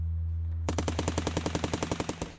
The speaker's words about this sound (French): Moi, je fais ce constat que, le souvenir m'est revenu par les oreilles. Et euh, je pense que voir les choses a dû être absolument horrible, mais le son des calaches m'a beaucoup obsédé. Ça doit être des pétards. Je crois pas, non.